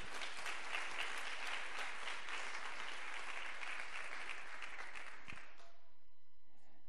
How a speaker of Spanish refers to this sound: Muy bien, ven y dele un fuerte aplauso al Señor por eso.